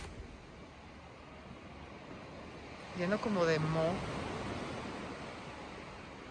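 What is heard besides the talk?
sea waves surf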